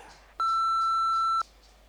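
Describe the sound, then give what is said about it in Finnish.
A single steady electronic answering machine beep, loud and clean, holds one pitch for about a second and then cuts off, with faint hiss before and after and no voices. “Voit jättää viestin Jaha. äänimerkin jälkeen.”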